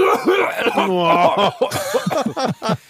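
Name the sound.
voice imitating a cough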